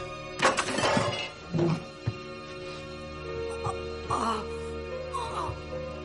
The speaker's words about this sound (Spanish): Ramanujan trabaja en su escritorio. Se lleva la mano al vientre y cae de la silla.